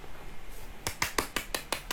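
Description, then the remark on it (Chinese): Brief welcoming applause: about seven sharp, crisp claps in a quick, steady rhythm, starting after a near-silent pause of almost a second. No one speaks. “OK，掌声欢迎。”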